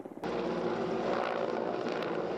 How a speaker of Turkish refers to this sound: Alevlere sadece havadan helikopterle müdahale edilebiliyor. Helikopterlerin birisi yangının üzerine su atarken diğeri de hemen peşinden geliyor. Aralarında yaklaşık 10'ar saniye fark var.